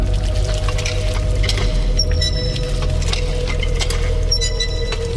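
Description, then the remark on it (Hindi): Water gushes steadily from a hand pump into a clay pot as a veiled woman keeps working the pump to fill it, a continuous pour with a low rumbling body and occasional faint clinks, with no voices. “ये आवाज सुनने पर भी वो महिला लगातार हैंडपंप चलाती रही”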